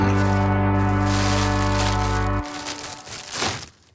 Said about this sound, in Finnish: Täällä alkoi hirveä rapina. Piti ottaa porkkanat esiin, vähän nälkä. Niin, ei kyllä tainnut olla porkkanoita, mitä sieltä kassista kaivettiin.